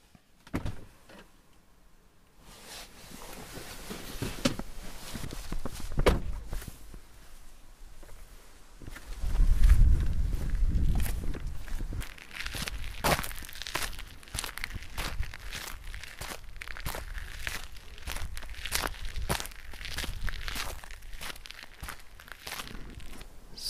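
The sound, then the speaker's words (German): Steady footsteps of a person walking alone at night crunch and rustle through forest undergrowth in a nature reserve, a regular stride of crisp, crackling steps with a brief low thump partway through, and no one speaking. “So, jetzt bin ich hier schon vor die erste Schranke gelaufen.”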